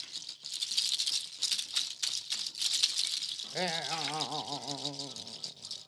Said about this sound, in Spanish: Como que estás escuchando ahorita, que es de pezuña de llama de mm, Bolivia. De Bolivia, claro.